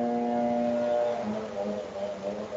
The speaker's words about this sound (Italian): Fuori purtroppo c'è un imbecille con la motosega